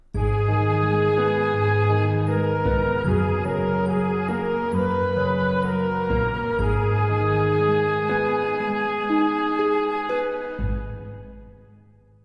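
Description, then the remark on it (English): A soft, gentle instrumental lullaby melody with sustained harmonies plays alone, repeating its last melodic fragment as the tempo slows from 90 to 60 beats per minute over the final bars, before the final notes ring out and fade away. “it just goes from like 90, exactly 90 beats per minute to exactly 60 beats per minute”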